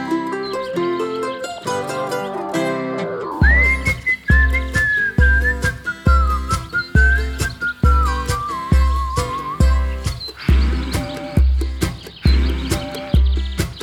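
A song released in 2020 with a steady, punchy beat, where a clear melodic whistle carries the tune, sliding and wavering over the music. An instrumental intro precedes it and no one speaks.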